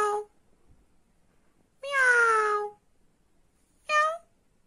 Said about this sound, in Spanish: Adelante, gatito Yugo Yugo. Miau, miau, miau, miau. Miau, miau, miau,